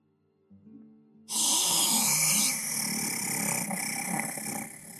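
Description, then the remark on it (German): A brief low hum gives way to a loud, harsh, rasping rattle of breath that drags on for several seconds, coming from a bush about five meters away, likely a human voice imitating a labored wheeze. “Und dann hörst du aus einem Gebüsch vielleicht fünf Meter von dir entfernt ein Röcheln.”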